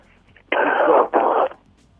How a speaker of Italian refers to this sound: sentivo tossire. Eh, eh, succede.